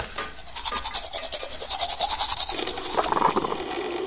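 Toothbrush scrubbing, a rapid rhythmic bristly rubbing, giving way near the end to splashing, gurgling water as the mouth is rinsed. No one speaks.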